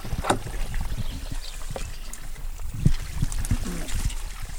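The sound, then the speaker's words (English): Water in a creek that has formed on a farm trickles and burbles steadily beside the listener, a continuous gurgling wash with small splashy bursts throughout, at a moderate, even level and no talking. “I don't know if you can hear that sound uh, beside us, but that's basically a uh, a creek that has started on our farm Whoa.”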